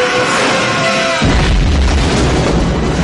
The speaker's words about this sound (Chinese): 要爆炸了！要爆炸了！快跑！